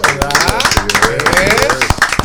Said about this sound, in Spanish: Bueno, señores, regresamos en este rumbo de la mañana y vamos a recibir con un aplauso,